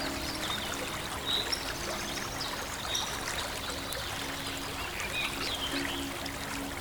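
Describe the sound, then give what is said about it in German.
A steady, continuous rush of water flowing in a small, crystal-clear river fills the scene, with a few faint, high bird chirps scattered about and no one speaking. “kleine Fische schwimmen mit dem Strom und es scheint, als wenn sie fast schwerelos im Wasser schweben.”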